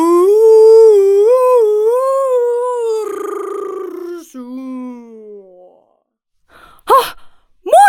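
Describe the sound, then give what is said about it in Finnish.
A walrus vocalizing in a backyard in Kotka: a long, loud, wavering moan that slides downward into a fading groan, then a pause before a couple of short, abrupt grunting bursts. “Mursu. Kotkassa. Meidän takapihalla.”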